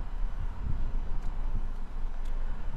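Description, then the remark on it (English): Wind buffets the microphone in a steady, low rumble, with gusty blustering swells throughout and no voices. “Um, as I said, the rain was fine. The wind is not”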